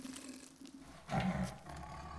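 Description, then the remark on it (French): A large black tiger with silver stripes, a garland of flowers draped around its neck, lets out a deep, rumbling roar that swells suddenly after a low growling lead-in, then fades into a lingering throaty rumble. Fairly loud, with no voices. “C'est un tigre, grand et noir avec des rayures argentées, un collier de fleurs drapé autour du cou”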